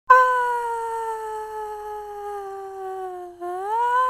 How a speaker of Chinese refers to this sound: 然后我跳下去的整程，我都在尖叫。那个地方算是一个山谷，所以呢，当你尖叫的时候，整个回音都会回荡在山谷里面。